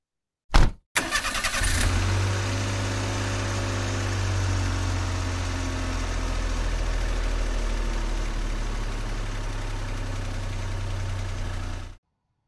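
A short click, then a car engine starts and settles into a steady, low idle rumble that continues evenly before cutting off abruptly.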